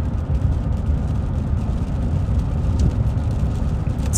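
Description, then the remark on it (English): Steady, even rain hiss fills the background, with a heavy low rumble underneath, like traffic or wind. The wash of sound is continuous and unbroken, with no one talking. “And it starts to rain, so you'll probably hear some rain in the background.”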